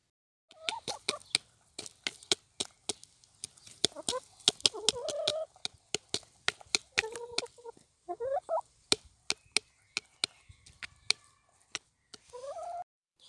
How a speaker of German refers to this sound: Und in diesem Audiobeispiel, da picken die Hühner ein paar Gurkenschalen aber was man hört, ist das Klackern vom Schnabel an der Futterschale, denn die Futterschale ist aus Plastik und da hört man richtig laut so ein Klopfen. Hör mal genau hin.